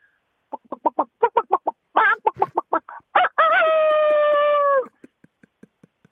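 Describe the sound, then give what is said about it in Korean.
A person imitates a rooster, starting with a rapid run of clucking syllables, then bursting into a loud, drawn-out crow that holds steady before trailing off into a few soft clucks. A phone-in contestant on a show performs it as the first of three imitations: rooster, baby and cicada. “닭 우는 소리 먼저 하겠습니다.”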